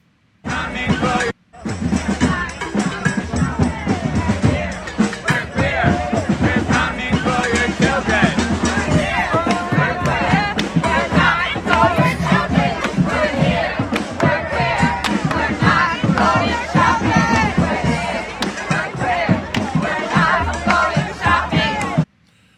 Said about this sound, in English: This is a group of people that are demonstrating Pride Month, and this is what they're going down the road, and this is what they're saying.